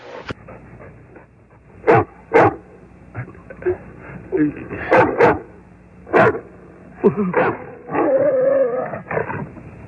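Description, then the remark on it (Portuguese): A dog barks in short, sharp bursts, about half a dozen spaced irregularly over several seconds, fairly loud, with faint voices murmuring underneath. “Ó, o cachorro ali, ó.”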